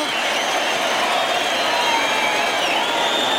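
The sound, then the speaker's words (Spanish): A bullring crowd gives a sustained ovation to the bullfighter Emilio de Justo as he receives it in the centre of the ring, a dense, steady roar of applause and cheering that stays loud and even throughout, with no single voice standing out. “Pues ahí están los medios recibiendo la ovación Emilio de Justo.”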